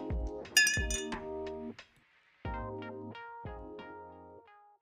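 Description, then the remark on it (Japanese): Glasses of milk clink together in a toast, with a few bright, ringing strikes whose tones linger and overlap, loud, followed by a short pause and more chiming clinks. No one speaks. “牛乳で乾杯。”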